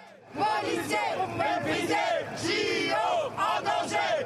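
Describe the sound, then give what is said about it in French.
More than 200 police officers marching through the streets of Paris on a Wednesday with smoke flares and flags chant and shout together in a sustained, loud roar, with rising and falling cries layered over one another in a rough rhythm. “Fumigènes et drapeaux à la main, plus de 200 policiers ont défilé dans les rues de Paris ce mercredi.”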